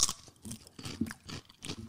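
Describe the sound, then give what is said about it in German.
Loud crunching of crispy lentil chips being chewed, a rapid series of crisp crackling bursts repeating in an uneven rhythm, with no talking. “Nein, ich knusper nur”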